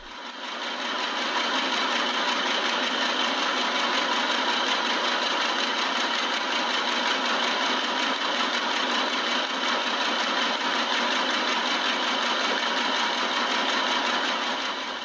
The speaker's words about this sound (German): du hast jetzt gerade vor dem Rattern von der äh, Stickmaschine, deren Ton wir jetzt hier ja wieder reingeschnitten haben, ne?